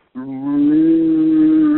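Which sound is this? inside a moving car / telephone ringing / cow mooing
cow mooing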